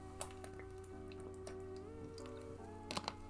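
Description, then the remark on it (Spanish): Quiet mouth sounds of someone taking a sip of water, with a few soft wet clicks and gulps over a steady low hum, with no talking. “Eh, voy a ver un traguito de agua, por cierto.”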